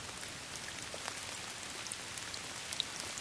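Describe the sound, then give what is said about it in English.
Heavy, wind-driven rain with big drops spattering steadily, a dense constant hiss broken by occasional sharper individual impacts, with no voices. “Big drops of rain beaten by the wind.”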